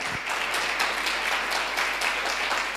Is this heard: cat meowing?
no